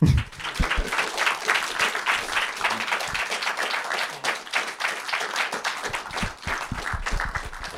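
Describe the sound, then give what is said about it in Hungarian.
Sustained audience applause, a dense crackle of many hands clapping steadily for several seconds with no voices standing out, fairly loud throughout. “Köszönjük, hogy itt voltatok, és gyertek velünk sörözni, és egy tapsot kérek mindenkitől a felvétel kedvéért.”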